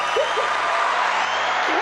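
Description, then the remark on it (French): A short, dense burst of crowd applause from a sound effect, steady and loud throughout, with a brief cheer or whoop near the start. “je savais que j'avais un petit son là, pour des applaudissements quelque part là-dedans.”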